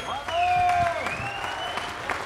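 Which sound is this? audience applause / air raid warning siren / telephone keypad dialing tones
audience applause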